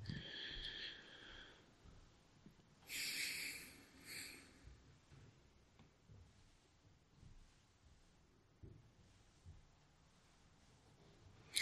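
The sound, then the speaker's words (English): A neighbor nearby gives a couple of soft, airy breaths, then two short noisy exhales in quick succession, then faint low rustling and stillness. No one speaks. “Notice your neighbor breathing if they don't breathe silently.”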